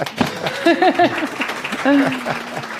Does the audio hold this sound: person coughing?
no